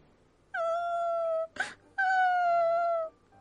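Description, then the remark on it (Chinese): A child crying in fright: two long, loud, high-pitched wails that sag slightly in pitch, separated by a quick sharp gasp of breath, with no talking. “雪鹅吓得哭了起来”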